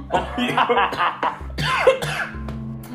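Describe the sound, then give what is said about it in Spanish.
Someone coughs hard after choking, in a run of sputtering bursts, with strained, raspy breaths between the fits. “Oye, weón, te atragantaste con John Diller, man.”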